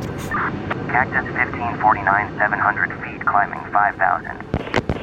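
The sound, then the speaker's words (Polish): An Airbus A320 taking off on a sunny day with 16 km visibility, its engines a steady, loud low roar throughout, with muffled voices talking over it and a few sharp clicks near the end. “Start samolotu przebiegał bez zakłóceń.”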